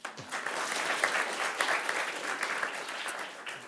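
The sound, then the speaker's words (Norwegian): A short round of audience applause: many hands clapping in a dense, steady patter that holds at an even level for a few seconds, with no voices over it. “Da får han en liten applaus.”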